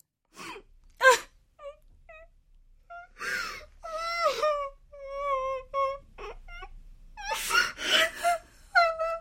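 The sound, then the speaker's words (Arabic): A woman cries and wails outside a doctor's office at a clinic in winter, with sharp gasping breaths, trembling drawn-out moans and whimpers coming in repeated bursts. No words are spoken. “وذات يوم سمع العاملون صوت امرأة تبكي خارج مكتب الطبيب”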